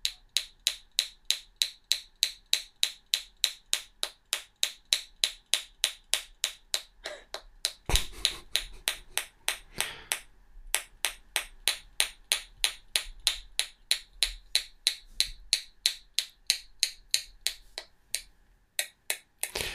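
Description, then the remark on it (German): Steady, rapid knocking on a hard object, roughly three crisp, sharp taps per second, continuing for about twenty seconds, with a brief rougher burst partway through and no talking. “Okay, ich klopf auf, auf irgendwas.”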